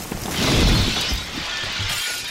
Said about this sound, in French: un arbre tombé du jardin de Robert Laguigne avait pulvérisé la véranda de son voisin.